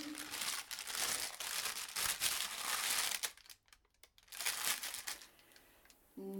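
A paper package being unwrapped, with loud, dense crinkling and rustling in irregular bursts, a short lull in the middle, then more crackling until a voice briefly starts at the very end.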